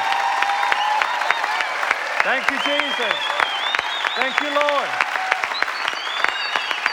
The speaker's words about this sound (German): I want you to give one more applause, but even bigger one. Ich möchte, dass du noch Jesus, einen größeren Applaus Jesus gibst heute Morgen.